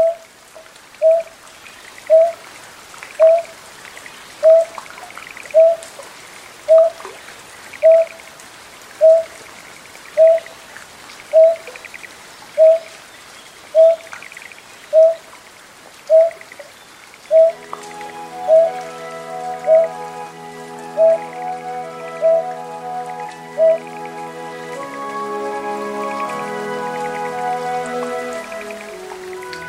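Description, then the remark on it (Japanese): Greater painted snipe calls in a rice paddy in Japan in early summer: a steady series of soft, hollow, low hoots, evenly spaced, over a rain-like hiss, with gentle music rising in the second half. “タマシギの小さな声が響き渡る初夏の水田これからも守っていきたい日本の風景です”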